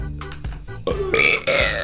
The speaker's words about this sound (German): Oh! So ein bisschen Rülpser nach der Folge ist immer okay, ne?